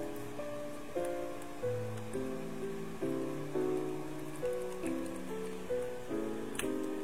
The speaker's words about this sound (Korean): 네, 신랑 신부를 환영합니다. 하객분들은 박수 소리로 환영해 주세요.